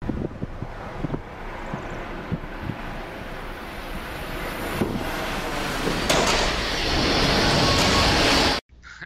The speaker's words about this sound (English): and the train wreck sound effect again.